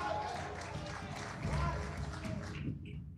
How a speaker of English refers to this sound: Come on, give Jesus a clap offering.